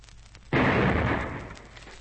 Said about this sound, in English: shell fire, and it's directed at the hill.